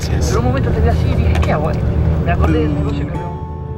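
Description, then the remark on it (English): Inside a moving overnight long-distance bus on a 12-hour ride to Puerto Montt: a steady, loud low engine drone and road rumble, with indistinct voices murmuring underneath throughout. “We even get food on this bus ride it's like an airplane.”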